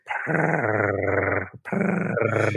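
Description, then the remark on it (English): A cat named Mucho purring loudly in a steady, low, rumbling buzz with fine rapid pulses. It runs in two long stretches separated by a brief pause, with no talking. “I wonder if this purring is going to make it on the uh, onto the podcast.”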